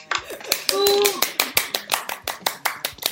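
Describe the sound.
A quick, steady burst of hand clapping, about fifteen sharp claps in a little over three seconds, with a brief voiced sound from a person partway through.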